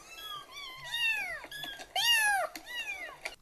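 A cat meows repeatedly, about five high, whiny cries in quick succession, fairly loud with short gaps between them and no voices present.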